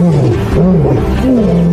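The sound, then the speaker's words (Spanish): A lion roars loudly, a deep, rumbling call with rising and falling pitch that carries steadily through the whole short moment with no pause. “Pero un felino en peligro de extinción los entornos naturales están desapareciendo en África y la población de leones se ha reducido a casi la mitad en los últimos 20 años.”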